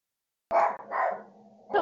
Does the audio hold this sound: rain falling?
no